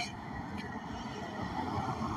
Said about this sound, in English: And uh, I guess you hear the cars in the background. I'm taking a little walk right now.